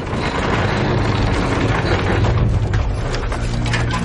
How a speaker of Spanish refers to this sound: No lleva jinete. Gira y se aleja. El caballo galopa hacia el muro.